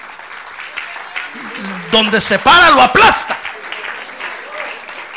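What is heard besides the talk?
audience applause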